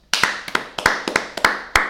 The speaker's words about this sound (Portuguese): Palmas para nós.